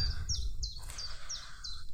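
A chiffchaff sings from the top of a tree in a wood, a steady series of high, bright notes, about five evenly spaced, clear against a low outdoor rumble of wind or background noise.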